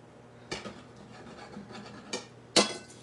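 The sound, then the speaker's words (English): A knife cuts a cheese-and-chicken food item in half with a short scraping rasp, followed by a couple of sharp knocks against a cutting board, the last one loudest. No one speaks. “And let's cut this in half so you can get a, a view of what it looks like.”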